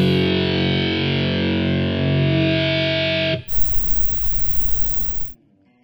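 A loud, heavily distorted rock cover song plays for a few seconds, then cuts abruptly into a harsh burst of static-like noise before falling silent.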